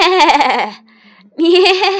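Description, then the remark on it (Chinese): Two loud, wavering sheep bleats separated by a short pause, each a quavering, nasal 'baa' with a trembling pitch, with no talking alongside. “这回来的是绵羊。”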